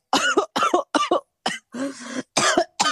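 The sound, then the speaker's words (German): A string of about seven harsh coughs in quick succession, with one longer raspy, strained cough in the middle, loud and unaccompanied by speech. “guck mal, dann musst du schon husten, weil das, das kannst du selbst gar nicht fassen, diese ganze Arbeit, ja.”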